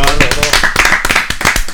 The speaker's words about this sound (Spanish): un aplauso que que se escuche fuerte en todos lados.